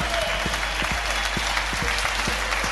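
A live audience at the Clapham Grand applauds steadily, a dense wash of many hands clapping, loud and sustained throughout with no voices standing out.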